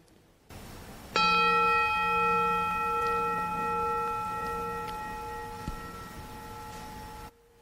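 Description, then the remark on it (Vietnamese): A single mindfulness bell is struck once, its clear, bright tone with layered overtones ringing out and slowly fading over several seconds, as listeners are asked to sit still and listen to it. “bây giờ mời các em ngồi yên lại nghe một tiếng chuông”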